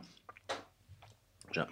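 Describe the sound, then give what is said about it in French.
Chewing of dry sausage: a few moist smacks and soft clicks in irregular bursts, with a brief mumbled vocal sound near the end. “J'avale mon morceau de saucisson.”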